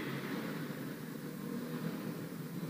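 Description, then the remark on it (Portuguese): A steady, droning rumble of motorcycle engines passing on a road, holding a constant loud level without clear rises or fades, with no voices heard. “tristeza essas motos, né? uma poluição do CROI.”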